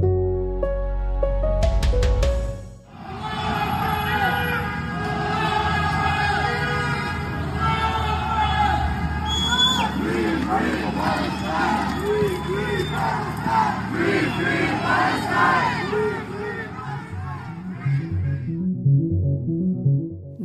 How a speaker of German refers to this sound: Sie skandieren Allah Akbar, also Gott ist groß, oder auch Free Palestine.